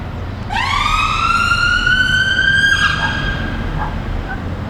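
An emergency vehicle siren wails loudly, starting abruptly and holding a long rising tone before fading off, over a constant rumble of traffic noise.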